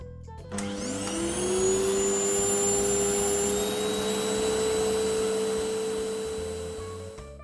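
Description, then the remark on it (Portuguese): A vacuum cleaner, used to clean the house at nine at night on a Friday, switches on with a rising whine, then runs loudly and steadily with a constant high-pitched hum and roaring airflow, no voices. “que resolveu limpar a casa às nove da noite de uma sexta-feira é mole?”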